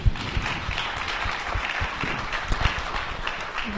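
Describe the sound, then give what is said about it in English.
An audience applauds its new members steadily, many hands clapping in a dense, continuous patter of sharp claps that holds at an even, moderate loudness throughout. “A round of applause for our new members.”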